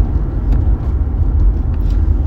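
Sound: car interior road noise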